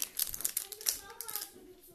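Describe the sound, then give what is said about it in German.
Crinkly rustling of plastic and paper packaging as trading card packs are unpacked, revealing a stack of energy cards, card sleeves, a code card and markers, with sharp bursts of crackle in quick succession, while a child's voice talks faintly underneath. “Also hier ist ein großer Stapel mit Energien. Kartenhüllen. Noch eine äh, Codekarte.”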